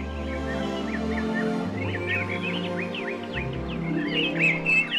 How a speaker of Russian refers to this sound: Тут сорока, сидевшая на верхушке дерева, закричала ему.